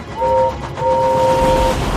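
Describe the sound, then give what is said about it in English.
An express train rushes by with a rumbling roar while its whistle sounds two steady two-tone blasts, a short one followed by a longer one, loud. “thundered past, blowing his whistle and making lots of noise.”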